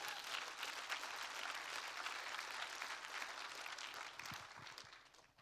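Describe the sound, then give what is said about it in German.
An audience claps for Jesus in sustained, dense applause, a steady wash of many hands that holds for several seconds before thinning out toward the end. “gebt Jesus ruhig einen Applaus, das ist wirklich immer gut.”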